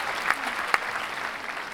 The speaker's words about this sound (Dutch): Geef ze nog harde applaus.